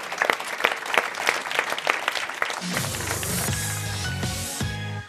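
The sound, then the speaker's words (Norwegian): A burst of hand clapping, sharp and fairly steady, lasts a few seconds before music with a sustained melodic line fades in and takes over. “Jeg klapper litt òg, jeg.”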